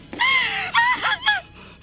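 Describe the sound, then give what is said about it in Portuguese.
A woman's piercing, high-pitched scream, one long cry followed by two shorter breaking bursts, each sliding downward in pitch, with no talk alongside. “Senhoras e senhores, como é que você faz pra não, no outro dia não estar sem voz depois de um grito daquele tipo ensurrecedor?”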